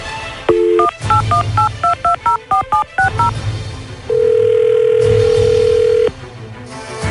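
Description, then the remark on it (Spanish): A quick run of about a dozen two-tone keypad beeps as a phone number is dialed to call a man, followed by a single steady, sustained tone lasting around two seconds. No voices. “Vamos a marcarle a Ezequiel y a ver qué descubrimos.”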